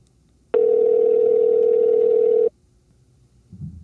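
A telephone dial tone on an outgoing call placed on September 10th at 4 o'clock: one loud, steady, mid-pitched hum that holds unchanged for about two seconds and then cuts off abruptly, leaving near silence with a faint low rustle.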